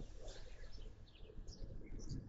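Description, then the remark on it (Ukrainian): Small birds chirp and twitter in scattered bursts outdoors after four in the afternoon under a clear, sunny sky, faint, over a low rumble of background noise. “А зараз, бачиш, по четвертій годині дня і чуєш, як цвірінькають.”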